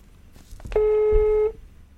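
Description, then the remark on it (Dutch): A telephone tone sounds as someone places a call, a single steady, mid-pitched beep lasting under a second, loud and clear, preceded by a soft click, with no voices around it. “Ik bel hem op.”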